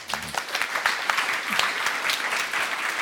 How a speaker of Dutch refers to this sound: Geef hem een heel hartelijk applaus